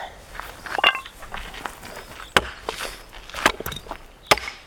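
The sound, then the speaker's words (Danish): An axe chopping dry firewood for a campfire at the forest school (skovskolen) in Nødebog: a few sharp, loud woody thwacks at uneven intervals, with softer knocks and crackling rustle of wood between strikes. No one speaks. “har taget økse og tør brænde med, da vi mødes på skovskolen i Nødebog.”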